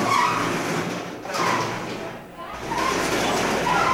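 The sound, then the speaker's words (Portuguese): A loud, continuous metallic rattle and grinding of the roll-up shutter doors of Bar Drone being raised, surging and dipping briefly before rattling on. “Pessoal, o seu Zé acabou de levantar as portas aqui do Bar Drone.”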